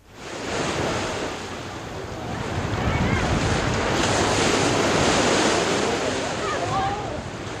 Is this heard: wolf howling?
no